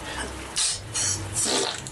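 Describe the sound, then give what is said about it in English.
A series of three short, wet, airy bursts of a vaginal fart, spaced about half a second apart over a low, steady background rumble. “Now, if you were here with me, do you think you'd enjoy”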